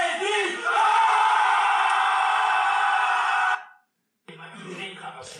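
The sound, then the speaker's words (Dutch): A group of people shout together for energy on a count of three, in one loud, sustained, full roar lasting a few seconds. It cuts off sharply, and after a brief silence someone starts talking. “Iedereen ging schreeuwen voor de energy.”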